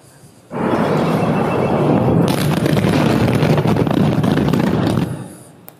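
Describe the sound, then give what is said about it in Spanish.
Video footage of a large explosion that bursts in suddenly and loudly, then a heavy roaring rumble continues for several seconds with crackling debris noise joining partway through before it fades out. “de donde se desarrolló la explosión.”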